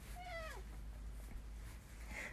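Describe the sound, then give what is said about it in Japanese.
A cat gives one short, falling meow near the start, followed later by a fainter, brief cry, both fairly quiet over a steady low background hum. “ココちゃんあんまり泣かないんだけど”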